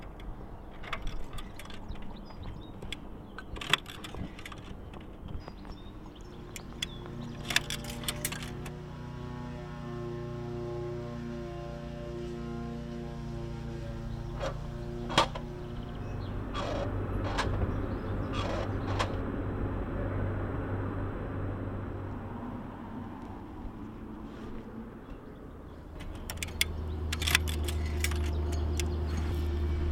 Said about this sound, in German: Das war unsere Hörreise mit dem Zug und am Bahnhof. Und was habt ihr jetzt so gehört? Es ist vielleicht schwierig aber ich kann euch weiterhelfen. Menschenstimmen, Zugdurchsage